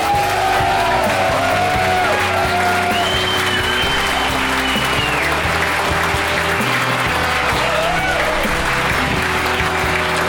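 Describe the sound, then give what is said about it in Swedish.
Loud, sustained applause from a crowd, with cheering and whoops rising over the steady clapping for about ten seconds without a break. “jävla ger en stor applåd till”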